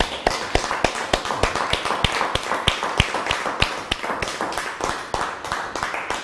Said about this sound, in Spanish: fuerte aplauso a eso.